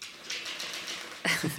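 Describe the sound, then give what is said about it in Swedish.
A dog lets out a short, sharp whine or yelp near the end, following a stretch of soft scratching and clicking noises. No one is talking. “det är min hund, ja.”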